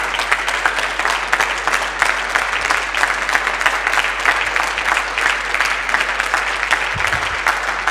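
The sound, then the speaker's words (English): Sustained audience applause from a church audience honouring the pastor, a dense steady patter of many hands clapping with no break or fade. “Give her a hand and say, Yeah.”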